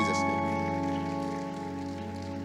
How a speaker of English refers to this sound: Let's clap our hands all over the room in